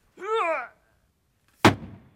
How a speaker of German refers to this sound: Diese Hammerkiste ist tatsächlich speziell für uns gebaut worden von einem Schreiner. Die Kiste selber ist aus einem Pappelholz, also von dieser Baumart Pappel. Und der Hammer selber ist aus ganz harten Eichenholz gebaut und ist auch ziemlich schwer.